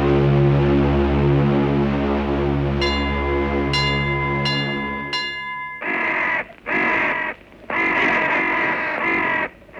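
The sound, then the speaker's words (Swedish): Crows caw loudly and harshly in a quick run of several raspy calls, after a low sustained drone and a few bright chiming tones. “Kra, kra. Avgasblå kråkor.”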